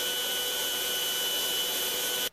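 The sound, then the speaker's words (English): A cutting machine, one that can cut for four or five hours at a stretch, runs on wood with a loud, steady, high whining roar and a constant hum beneath it, holding unchanged for about two seconds before cutting off abruptly. “This thing cuts for hours at a time, so it's not just like vit, vit, vit, and then it's done like the laser cutter.”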